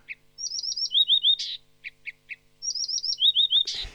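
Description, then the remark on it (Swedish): A Blyth's reed warbler, an eastern species, sings on Alnö: quick runs of clear, ringing, xylophone-like notes, short chipping calls and harsh buzzy bursts, repeated in two improvised phrases with no talking. “Helt fantastiska xylofonläten mitt i alltihop. Att sitta och lyssna på den här busksångaren, det, då tror man att man är i regnskogen.”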